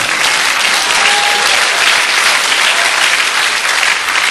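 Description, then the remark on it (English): Loud, sustained applause from a large crowd praising God, a dense steady roar of clapping with scattered cheers and shouts mixed in throughout. “but he says I am still omnipotent you ain't seen nothing yet you ought to praise him real loud.”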